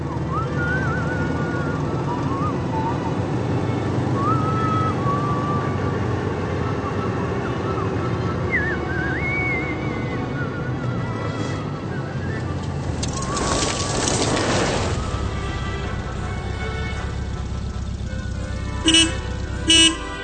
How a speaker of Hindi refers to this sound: माफ कीजिए प्रोफेसर साहब ये तो सभी समझ सकते हैं कि एक गाड़ी की आवाज आ रही है और कोई किसी गांव में पहुंचा है